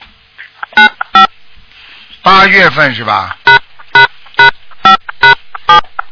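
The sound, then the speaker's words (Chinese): Short electronic keypad beeps of someone at home pressing telephone keys to make a call, about eight evenly spaced tones, loud and clear; a brief stretch of a man talking interrupts them partway through. “哎，你家里还有个人在打电话，你赶快叫他不要按电话去。”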